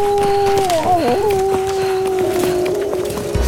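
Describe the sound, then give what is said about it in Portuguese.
A wolf lets out a long, loud howl that wavers and dips into a yelping cry partway through, then holds steady on a sustained wail, with no voices, as it flees in fear after nearly burning itself on a lit fireplace while trying to enter a house through the chimney. “Então, quando o lobo foi entrar, ele quase se queimou e, com muito medo, fugiu gritando.”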